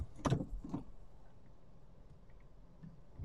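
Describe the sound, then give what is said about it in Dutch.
Steady low rumble of a car driving, heard from inside the cabin, opening with two short mechanical bursts like a window motor or latch, then settling into an even, muffled engine and road hum. “Ik ben onder het rijden ben ik het opnemen en er was even een vrachtwagenchauffeur heel boos op mij.”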